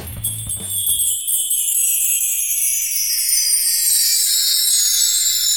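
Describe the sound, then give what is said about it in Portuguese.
Bright, high-pitched carillon bells ring out in a continuous shimmering wash of music, steady and fairly loud. After a brief low note at the start, the chiming carries on alone with no voices. “Falando em afinação, vamos ouvir um pouco de música com sinos, o carrilhão que citamos é também um instrumento de percussão e soa mais ou menos assim.”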